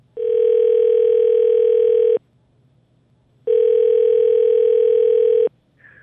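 A telephone dial tone hums in two long, steady buzzes of about two seconds each, separated by a brief silence, as a morning radio show places a phone call. It's loud, with no voices.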